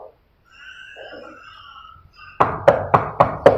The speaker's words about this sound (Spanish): le tocó la puerta